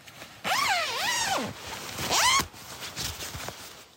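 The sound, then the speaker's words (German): A tent zipper in the Sahara in southern Algeria is pulled in two rasping strokes, a long one followed by a shorter quicker one, fairly loud with nothing else going on around it. “Das Zeltgeräusch.”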